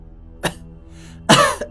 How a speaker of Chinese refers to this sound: 又一阵咳嗽声响了起来。